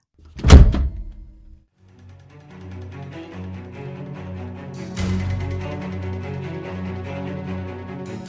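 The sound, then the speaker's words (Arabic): A single heavy thud of a door being quickly pushed shut and locked by a man after pushing a dog inside, loud, fading quickly before a steady, tense musical backdrop swells in and continues. “فدفعه بسرعة إلى الداخل وأقفل الباب”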